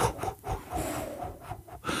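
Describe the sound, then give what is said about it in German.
A voice imitates straw bales or tumbleweed blowing across a quiet construction site behind the Hotel Astoria, with breathy, raspy rushing and rubbing noises, rising and falling in several uneven gusts, moderately loud. “Das sind so die Strohballen, die über die Baustelle fliegen. Strohballen rollt durchs Bild.”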